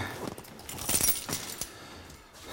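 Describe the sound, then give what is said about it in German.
A bunch of house keys jangles and clinks for a couple of seconds, the bright metallic rattling loudest in the middle before settling into lighter, scattered jingles. “Mein und Schlüssel mal klingeln.”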